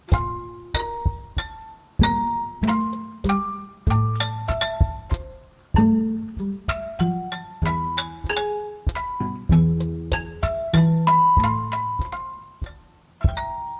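A musical flourish (Tusch) jingle: bright bell-like struck notes play a lively melody with occasional chords, ringing clearly for about fourteen seconds with no voices over it.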